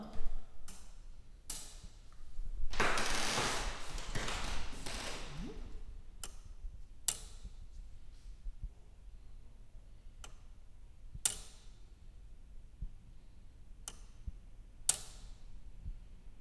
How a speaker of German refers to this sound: Wir hören das Ticken des 700 Kilogramm schweren Uhrwerks, das von 1699 bis in die 1860er im Südturm des Stephansdoms für die Zeitmessung zuständig war. Weil sich der Turm durch das große Gewicht zu neigen begann, musste es entfernt werden.